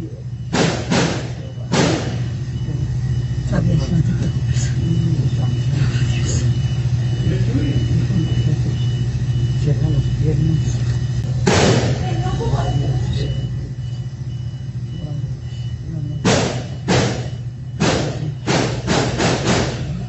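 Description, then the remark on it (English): Loud, sharp gunshots ring out inside a Walmart store in bursts: a quick trio, a lone shot, then a rapid cluster of about five, over a steady low hum and muffled background voices. Recorded by a woman hiding under a store shelf. “The following clip contains the sound of gunshots and may be triggering for some people.”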